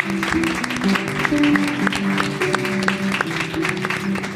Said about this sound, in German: Applaus auch.